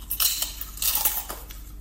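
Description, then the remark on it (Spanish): Crisp, crackly crunching of pork rinds from an Advent calendar being bitten and chewed, a handful of bright, irregular bursts in quick succession with no talking over them. “Voy a empezar por el que más ilusión me hace ahora porque tengo hambre, ¿vale? vamos a empezar por el de cortezas de cerdo.”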